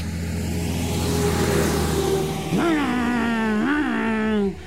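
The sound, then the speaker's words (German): A car engine drones steadily on a road in the dark, headlights approaching, then its pitch rises and revs twice in quick surges as the vehicle accelerates and rushes past, loud and continuous until it cuts off near the end. “Grelle Lichter kommen näher, sausen vorbei. Achtung, Schrettle, ein Menschenweg.”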